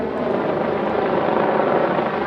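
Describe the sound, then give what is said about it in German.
A helicopter drones steadily overhead above the city centre during a police operation, its dense, continuous rotor noise loud and unbroken for the whole stretch, with no voices present. “Am Himmel Hubschrauber”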